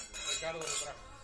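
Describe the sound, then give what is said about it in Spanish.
A short burst of wine glasses holding a Burgundy Pinot Noir clinking together in a toast, a quick cluster of bright, ringing taps that fade within about a second, heard fairly faintly. “Vamos, vamos a tomar, aquí hay que brindar.”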